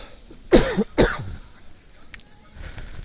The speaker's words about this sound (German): Irgendwie ist hier was in der Luft, glaube ich. Irgendwie so doof. Irgendwie. Ich muss schon wieder husten.